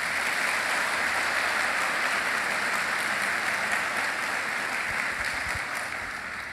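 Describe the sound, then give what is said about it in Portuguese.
An audience applauds steadily after a prayer, clapping for the King of Kings in a Portuguese-language worship service: a dense wash of clapping from many hands that holds for several seconds, easing off slightly toward the end. “Aplauda o Rei dos Reis, por favor.”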